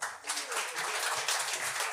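An audience applauds in answer to the performer asking whether there are lazy people in the room tonight, a steady, dense patter of many hands clapping, holding an even level for the full two seconds with no voices on top.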